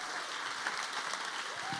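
An audience applauds loudly for the Lord, a dense, steady wash of many hands clapping together that holds evenly for the whole moment, with no voices standing out.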